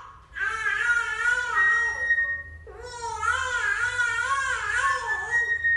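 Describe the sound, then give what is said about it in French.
A baby beside its mother during her daily flute work cries in two long, loud wails, the first ending after about two seconds and the second continuing steadily with a wavering pitch, with no talking. “Et donc, euh, on, peut entendre la pleure”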